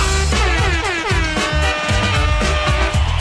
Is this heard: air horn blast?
yes